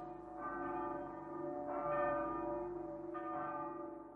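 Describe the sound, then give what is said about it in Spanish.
A church bell rings with a rich, sustained metallic tone, struck three times at roughly steady intervals, each strike swelling over the lingering hum of the last. No voices are heard. “Esta campana rota quiere sin embargo cantar.”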